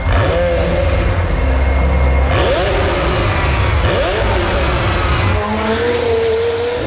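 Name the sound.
race car engine revving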